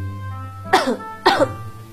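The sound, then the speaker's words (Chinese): A voice telling a story imitates a monkey coughing in cold, heavy rain: two short, harsh, breathy coughs about half a second apart, fairly loud, over a steady low hum with no talking. “猴子咳嗽起来，呱呱。”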